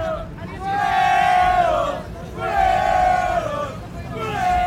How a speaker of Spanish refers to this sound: Pero había un grupo ahí que empezó a, gritar y podemos meter aquí el audio para que la gente escuche.